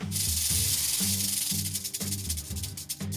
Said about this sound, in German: Schlangen können zischen oder fauchen, um den Gegner abzuschrecken.